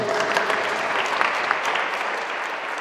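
An audience at a church service claps for the Lord, a dense, sustained wash of many hands applauding at an even loudness throughout, with no voices standing out.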